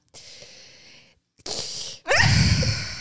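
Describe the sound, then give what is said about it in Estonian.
A sharp, audible gasp of breath taken in, breathy and loud, with a few rushing inhalations in quick succession and no speech. “see oli hea hingamine, selle me jätame sisse.”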